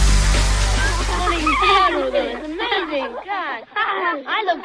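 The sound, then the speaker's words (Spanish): Children's high voices laugh and shout in bursts as they play over a rushing, splashing wash of water, lively, with the water noise strongest at the start and fading as the voices continue. “¿Y esas risas de niños jugando?”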